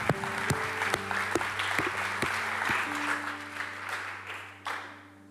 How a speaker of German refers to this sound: Vielen, vielen Dank. fetter Applaus an euch, auch an allen Locations.